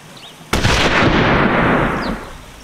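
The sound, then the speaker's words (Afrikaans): A single loud gunshot from a hunter's gun cracks sharply out of a quiet background, followed by a long rumbling echo that slowly fades over the next couple of seconds. “Die jagters skiet nog 'n paar skote, maar alles is gelukkig mis.”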